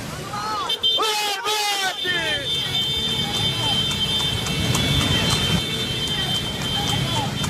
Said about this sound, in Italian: A cominciare dal motivo per cui ti abbiamo chiamato, e cioè la corsa di cavalli folle in pieno giorno sulla circonvallazione a Catania. Che cosa si vede? Si vede una corsa clandestina in piena regola da film a 8.